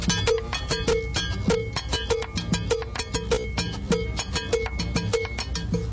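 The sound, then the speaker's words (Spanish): A cowbell (campana) is struck over and over in a quick, steady rhythm, each bright metallic clank ringing briefly and fairly loud, with no voices. “y la campana.”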